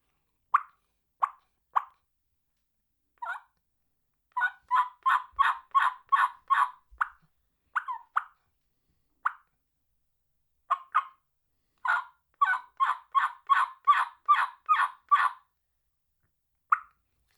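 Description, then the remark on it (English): Soft turkey calls made on a modified Woodhaven cutter mouth call, a light stretch call played with hardly any air. It gives scattered single clucks and purrs, then two quick runs of gentle, even yelps, quiet with no talking. “what I did is I just backed off the air on a call, which I used a modified cutter by Woodhaven, and it's a lighter stretch call, so you can put hardly any air to it and get really pretty soft sounds.”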